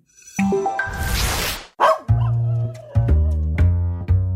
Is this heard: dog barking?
yes